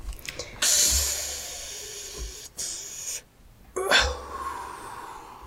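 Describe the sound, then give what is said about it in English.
A person mimes drawing on a cigarette: a few hissy, breathy inhales in bursts, with short pauses between them and no cough afterward. “You're supposed to cough. that just sounds like I don't know what you're smoking.”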